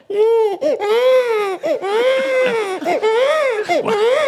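A baby wails loudly and continuously, its high, strained cries rising and falling in long sobbing bursts with brief catches of breath between them.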